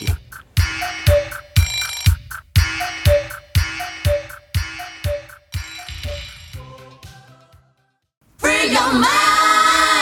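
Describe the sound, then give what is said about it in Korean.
A school-bell style chime melody of bright, evenly spaced ringing tones plays on its own for several seconds, fades into a brief pause, then gives way to a louder, busier burst of sound. “학교 수업 종소리 아닌가요?”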